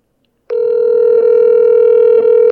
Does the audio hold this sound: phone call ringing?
yes